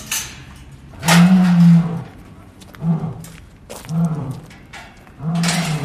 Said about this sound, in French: bah là, c'est tous les lions qui parlent ensemble. Mais quand on arrive trop près d'eux, après, ils vont arrêter. C'est-à-dire ah, que les jeunes lions parlent avec les vieux lions.